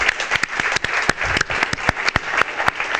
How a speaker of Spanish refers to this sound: Podemos pedir un aplauso, ¿no? Para Chris Carter.